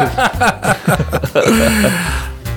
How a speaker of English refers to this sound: Shall I clear my throat? Yes. Yes. do you want me to tell the mic then while you clear your throat? There you go. Give it a good cough. There you go. See.